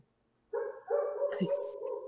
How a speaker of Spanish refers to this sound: Hablando de un perro, allá fuera, ¿no?